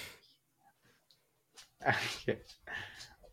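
dog noise

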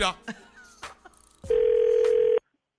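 telephone call connecting

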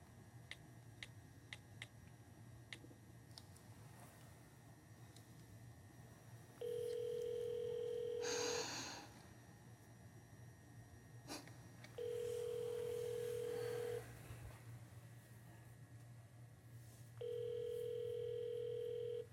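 telephone ringback tone

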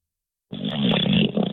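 loud snore

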